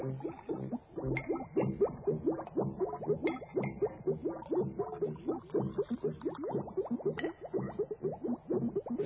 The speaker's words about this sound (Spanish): Necesitamos un poco de sangre fresca. ¿Alguno de ustedes me presta su dedo? ¿No? Bien, entonces usaré el mío. Y ahora mezclamos esta pequeña cantidad de sangre en un litro de agua.